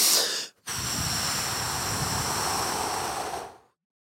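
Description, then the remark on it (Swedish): A short breath, a brief pause, then one long, steady, airy exhale lasting about three seconds before fading out, done as a calming breathing exercise. No one speaks. “Om du vill lugna ner dig så ska du ha långa utandningar.”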